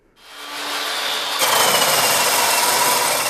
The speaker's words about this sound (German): Auf einer Baustelle in Bad Vilbel soll Azubi Liberto Malfeto eine alte Tapete von der Wand entfernen.